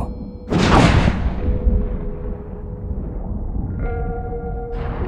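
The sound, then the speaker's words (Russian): A sudden loud thunder crack bursts out as lightning strikes an antenna above a cellar, then gives way to a long, low rolling rumble that lingers under a steady droning tone for several seconds. “Раздался сильный разряд грома, а за ним нагнетающий атмосферу гул.”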